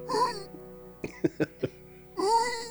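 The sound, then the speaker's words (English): A person mimics a whimpering yelp: a high, wavering whine, then four short sharp yelping bursts, then another drawn-out whimper. “I imagine that sound is actually yelping.”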